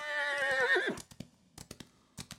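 A horse being urged by its rider through bushes gives a loud whinny lasting nearly a second, its pitch wavering and falling, followed by scattered hoof clops on hard ground.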